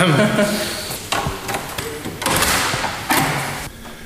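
An old wooden door is opened, with several heavy thuds and knocks spread over a few seconds and a scraping, rattling texture between them.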